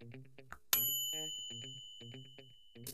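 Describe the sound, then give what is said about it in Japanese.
A microwave oven chimes once when it finishes heating frozen food: a single bright, clear ding that rings on and slowly fades over a couple of seconds, standing out above softer background sounds. “そろそろ冷凍食品が温まったようなので、えー、今回はこれで終わりたいと思います。”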